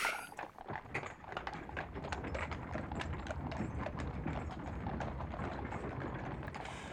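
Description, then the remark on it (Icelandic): Steady clip-clop of large horses trotting back and forth on a hard surface, many quick overlapping strikes, over a dense background bustle of merchants and soldiers with no clear talking. “að sjá fyrir sér allt það líf sem þarna væri sölumenn að bjóða varning og, og eh, herrmenn á vappi og, og síðan risavaksnir hestar á tölti fram og aftur”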